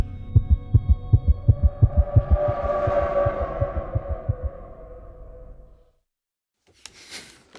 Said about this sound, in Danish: Og så, og så fik mit hjerte, det begyndte at slå.